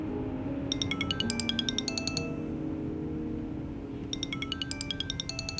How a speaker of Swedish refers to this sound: Det ringer i mobiltelefonen. Ett samtal från en medarbetare på Globens biljettförsäljning.